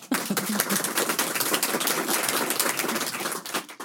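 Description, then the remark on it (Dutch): An audience applauding after a quiet poem is read: dense, steady clapping that starts abruptly, holds at an even, fairly loud level for several seconds, then begins to thin out at the end. “Zo ineens dat applaus, wat naar zo'n heel rustig gedicht...”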